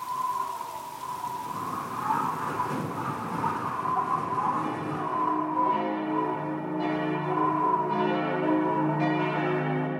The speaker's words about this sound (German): Ich habe eine Sequenz von Glocken aus meiner Heimatkirche St. Nikolai in Hannover-Limmer, an der mein Vater 40 Jahre Pastor war. Sie läuten jeden Abend um 18 Uhr